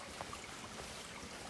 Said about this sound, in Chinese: 这个现在听到声音不是下雨，是流水声，就是温泉流过的声音。